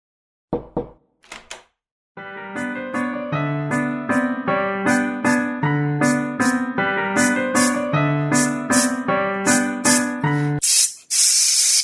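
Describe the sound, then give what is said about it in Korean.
A few quick clicks, then a bright, bouncy musical jingle with steady beats, ending in a loud, sustained hiss of an aerosol can of 토일리씨 (Toilet-C) toilet seat disinfectant being sprayed, lasting about a second. “뿌리세요. 새 것처럼. 변기 시트 소독제 토일리씨.”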